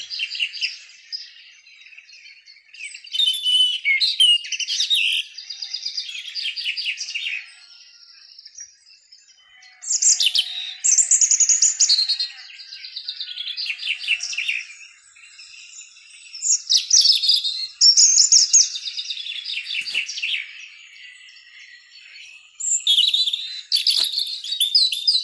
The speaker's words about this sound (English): Listen. Listen to the high frequency of birds coming this August, just as summer wanes and fall rears its colorful head.